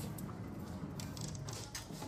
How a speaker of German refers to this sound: Tür zu. Einmal Tür auf.